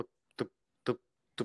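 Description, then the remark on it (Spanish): Soft, evenly spaced tapping, three hollow knocks about half a second apart, quiet, mimicking the sound of a knife chopping things on a wooden board. “Pero bueno, comenzó un ruido así, suave, comenzó.”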